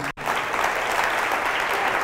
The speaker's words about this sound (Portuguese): Quantos acreditam que esse é um dia bom? Aplauda ao Senhor Jesus.